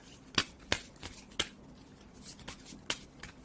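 A deck of question cards being shuffled: a series of crisp, snappy flicks and soft riffling bursts spread irregularly over a few seconds, with no voices.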